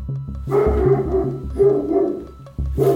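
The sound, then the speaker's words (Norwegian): A household dog barks loudly to raise the alarm, three sharp, drawn-out barks about a second apart, over a steady, pulsing low rhythmic thump in the background. “Og så hadde vi jo hund, så han varsla jo også veldig.”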